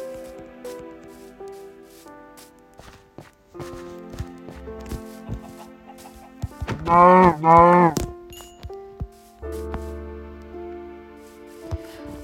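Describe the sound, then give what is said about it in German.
A single loud, wavering cow moo from a video game rings out midway as the player goes to fetch a cow, over steady background music and soft clicking footsteps. “Ich hol mir noch kurz die Kuh.”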